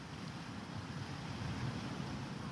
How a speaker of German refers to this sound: ich spüre den Wind und ich höre, wie die Wellen gegen die Felsen schlagen und spüre die Sonne auf meiner Haut